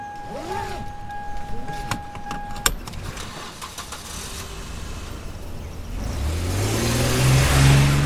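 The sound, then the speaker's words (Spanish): A car engine starts up after a few seconds of quiet background with a steady electronic tone, then revs and climbs in pitch, growing louder toward the end, as the car sets off from a home on Calle Loíza. “Si salgo de casa en la calle Loíza, voy en carro.”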